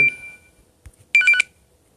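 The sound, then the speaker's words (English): A phone rings with bright, electronic chirping tones: one short burst at the start, then a quick rapid trill of several pulses a second later, clear with no talking. “If you just heard the phone ring”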